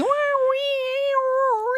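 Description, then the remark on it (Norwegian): A voice imitates the screech of a cat dying in a garden, holding a single strained, nasal wail for about two seconds with a slightly wavering pitch that bends down and back up near the end. “og det er innmari ekkelt å høres ut som en katt som dør i hagen, liksom.”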